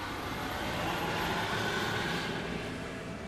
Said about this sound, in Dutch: Oh, trekker.